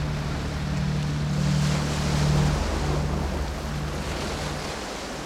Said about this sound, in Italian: Bei ristoranti e certi tramonti da mozzare il fiato, da ammirare con le onde del mare che si infrangono sugli scogli.